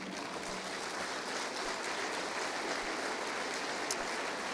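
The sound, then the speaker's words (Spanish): A large crowd claps continuously in applause to the Lord, a dense, steady wash of applause at an even loudness for several seconds, with no voices standing out. “Dele otro aplauso al Señor.”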